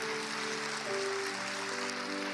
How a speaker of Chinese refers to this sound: 今天是我的爸妈人生第一次来到教会参加主日，大家给他们一个掌声好吗？